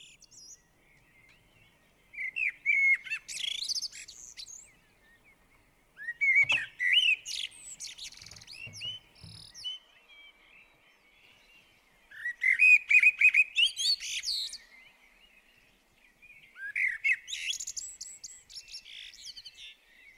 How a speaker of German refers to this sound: Das heutige Tier von dieser Sendung ist die Amsel.